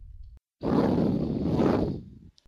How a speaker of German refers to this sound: Ein kräftiges Schnaufen.